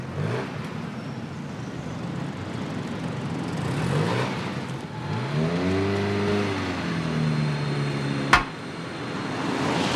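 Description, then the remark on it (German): A car engine idles and revs up and down at low speed, as if the car is edging back and forth into a parking space, followed by a single sharp knock near the end. “Man erzählt sich zahlreiche Witze über Frauen, die sich bei dem Versuch, mit ihrem Wagen vorwärts oder rückwärts in eine Parklücke einzubiegen, rettungslos festgefahren haben.”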